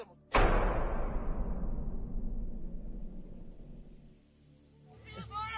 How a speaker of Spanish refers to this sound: ¿Eh? ¿Cómo se va a abrir sola la puerta?